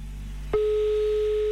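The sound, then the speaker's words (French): A single steady telephone ringback tone sounds for about one second while calling someone in Lully, in the canton of Fribourg. The tone is clear and fairly loud over a faint low hum, with no voices present. “Voilà, ça sonne.”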